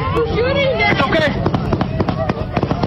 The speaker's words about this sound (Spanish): Ahí escuchamos el tiroteo. Ellos están eh, pues tirados en el pasto ahí y una persona les dice todo está bien, tranquilos y los niños están llorando. Obviamente todo un caos.